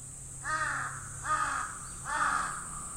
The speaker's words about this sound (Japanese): カラスが3回大きな声で泣いた